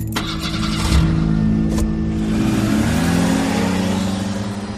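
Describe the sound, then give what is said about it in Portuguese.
A car engine starts up and revs, its low droning tone rising in pitch as the car is taken out and heads for the road, loud with no talking over it. “Você tira o carro dali, vai para a estrada.”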